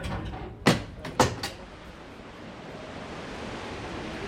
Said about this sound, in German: Langsam schleppt sich die kleine Bergbahn den Hang hinauf. Sieben Minuten dauert die Fahrt. Auf einer Höhe von knapp 850 Metern liegt die Bergstation der Reichenbachfälle.